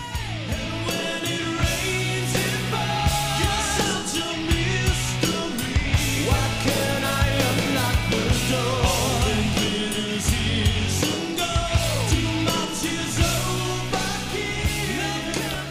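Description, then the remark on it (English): A loud, dense hair-metal power ballad by a band, a single from their 1992 album, with lush 80s-style synth pads, sustained bass and layered guitars playing continuously, with no break in the sound. “Yeah, this sounds like a standard power ballad with some 80s sounding synths.”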